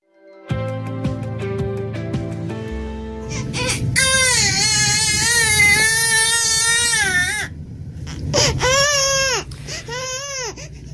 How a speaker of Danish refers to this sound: Der ligger simpelthen på YouTube nogen, der har optaget en baby, der græder i en time